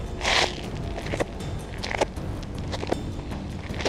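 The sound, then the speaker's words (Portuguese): Many footsteps crunch and thud at an irregular pace, sounding like a group walking closer over a steady low rumble, with a brief hissy scrape near the start. “De repente vocês começam a ouvir vários passos se aproximando.”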